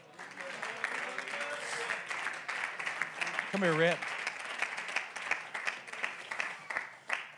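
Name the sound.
audience clapping hands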